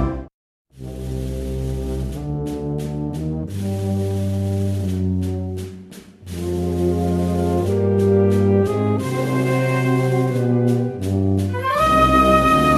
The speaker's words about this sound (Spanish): Una marchita más eh, que hemos escuchado, eh, muy cerca ya de, del Domingo de Ramos, de la, ansiada fecha.